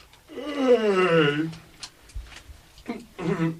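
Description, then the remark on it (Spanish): A man who has just woken up stretches and gives a long, drawn-out yawn with a falling pitch, followed by a few short breathy vocal sounds and murmurs, fairly loud. “El criado, para Toras, que se ha despertado al oír la voz de su amo, se estira y bosteza.”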